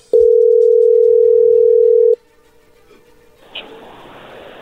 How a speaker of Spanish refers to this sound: A ver, ya entró ahí la llamada, no haga ruido.